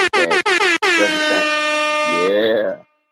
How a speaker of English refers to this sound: I know you had the air horns.